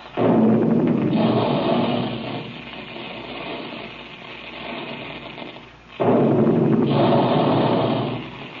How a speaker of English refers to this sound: There go the big guns now to remind you to have your delicious, nourishing puffed wheat and puffed rice breakfast regularly